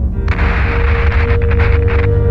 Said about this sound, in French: 16 secondes s'écoulent, et puis soudain, un bruit de métal froissé et une secousse ébranlent la fusée.